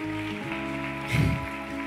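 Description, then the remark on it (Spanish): A church audience applauds loudly in a dense, steady patter of many clapping hands that swells briefly midway, with sustained musical tones running underneath. “Vamos, iglesia, del otro aplauso fuerte.”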